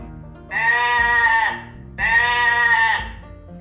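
goat bleating

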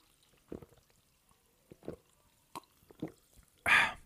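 sparkling water being poured

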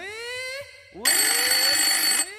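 telephone ringing

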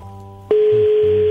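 phone line ringing

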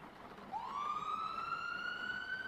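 ambulance siren

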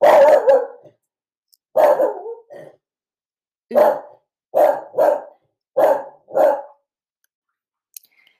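dogs barking

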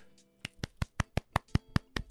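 a single person clapping

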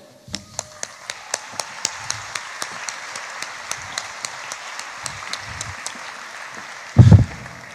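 audience applause

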